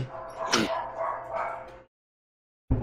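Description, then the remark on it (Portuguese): A dog that wants to be let outside barks and yips in a quick, excited burst, fairly loud, then falls silent for a moment before another yelp cuts in at the end. “Espera aí, só um, só um instante, porque eu vou deixar o ca cachorro sair agora.”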